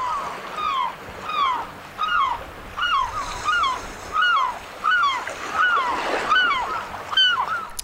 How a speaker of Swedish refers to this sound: Vad kännetecknar ett gråtrutsskrän? Ja, gråtrutsskränet är ett ganska klassiskt eh, kustläte får man nog säga som känns igen och jag tror att eh, det är väl helt enkelt bäst att lyssna på det här för att och, och se hur det låter.